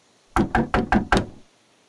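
Five quick, firm knocks on the wooden door of a small white house in an even rhythm, fairly loud, with no voices around them.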